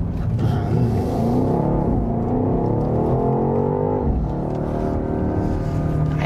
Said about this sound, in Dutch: Die V8, hier, luister maar. proberen nog met speaker sound en zo er nog iets van te maken. Maar eigenlijk klinkt hij meer als een viercilinder, potente viercilinder, dat wel, dan als een V8.